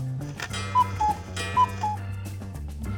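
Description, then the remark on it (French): A cuckoo clock calls twice, each call a clear two-note falling 'cu-ckoo' whistle, sounding over a steady background of soft, low instrumental music with no voices. “Les Suisses aiment être à l'heure, c'est pourquoi ils ont inventé toutes sortes d'instruments pour mesurer le temps, dont le fameux coucou”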